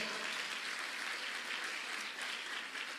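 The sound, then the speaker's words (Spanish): A church audience claps loudly and steadily for the Lord, many hands producing a dense, continuous burst of applause that holds at full strength throughout, with no voices standing out. “La iglesia le da palmas fuerte al Señor.”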